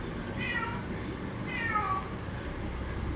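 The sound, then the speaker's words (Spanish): A cat meows twice, each a drawn-out wavering cry, over a steady low background hum. The meows are moderately loud, with no talking. “ya empezó a ser bulla el gato.”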